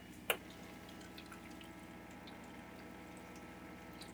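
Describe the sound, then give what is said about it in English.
A steady mechanical hum with a low rhythmic pulse and trickling, dripping water, punctuated by one sharp click near the start, from an ice maker cycling aboard the boat Dawn Treader, powered by a running generator. “Yeah, that's our ice maker, another of our luxuries that we um, indulge in here on the Dawn Treader that most boats do not have.”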